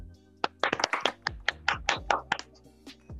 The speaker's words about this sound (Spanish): Por favor, un fuerte aplauso a nuestro amigo